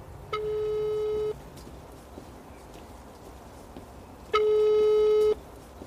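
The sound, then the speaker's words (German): Two long steady electronic tones about a second each, separated by a pause of roughly three seconds, the ringback pattern of a phone call waiting to be answered, over faint background noise. “Soll ich ihn jetzt mal anrufen oder kommt er wohl?”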